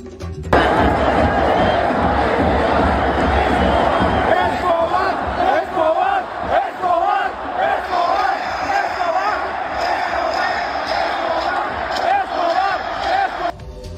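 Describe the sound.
A large stadium crowd at the Estadio Azul chants loudly and continuously in protest about their team's captain, many voices merging into a sustained roar with rhythmic shouted swells throughout.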